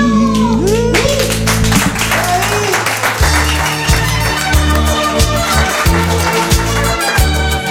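A crowd claps steadily and loudly for a singer after a song, a dense wash of applause that runs the whole stretch while music with a deep bass line plays underneath.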